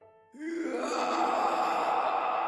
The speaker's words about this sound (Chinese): 突然，王革命一下子松开我的肩膀，双手捂住了耳朵，身子向后仰，发出了撕心裂肺的嚎叫。